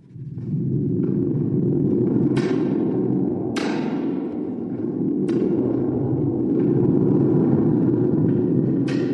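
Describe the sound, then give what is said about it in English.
A thunder gourd, a gourd with a special fabric on the bottom and a string inside, shaken steadily, producing a continuous deep rumble like thunder with sharp metallic, springy crackles bursting through every second or two, loud with no talking. “It's a gourd with a special fabric on the bottom of it and it's got a, a string in it. And when you shake it, it sounds like thunder.”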